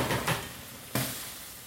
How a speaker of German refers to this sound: So, dann nehmen wir, nehmen wir mal hier den Deckel vom Topf.